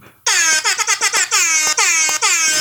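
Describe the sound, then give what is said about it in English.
A loud air horn blares for over two seconds, stuttering in a quick series of short bursts before settling into longer, sustained blasts with brief breaks, and no voices. “Uh, do you want the air horn, the bear bear, or not really?”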